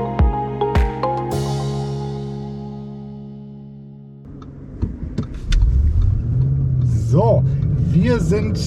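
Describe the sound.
An Audi RS Q8 engine rumbles and climbs steadily in pitch as the car accelerates, heard from inside while driving out of Mettmann on the way to Starbucks, following a short musical chime; a voice briefly speaks over the engine noise.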